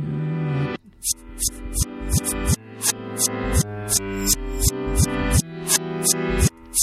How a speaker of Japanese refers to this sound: これはですね、実はあの、暴れラジオさんのエンディング曲があるんですけども、えーその曲を逆回転させてるんですね。逆再生ですね。